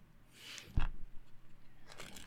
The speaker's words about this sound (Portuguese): Misturar o máximo aqui, ó. E agora. É, é você, ele tá embaralhando mesmo. É baralho.